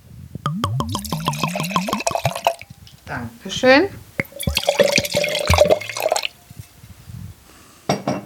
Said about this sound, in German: Und wir haben ein bisschen Wein mitgenommen. Natürlich. Ja, dann wollen wir uns doch jetzt mal ein schönes Gläschen einschenken